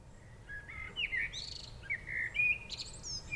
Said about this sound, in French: quitter ces oiseaux qui chantent à tue-tête